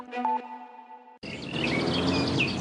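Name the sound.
birdsong chirping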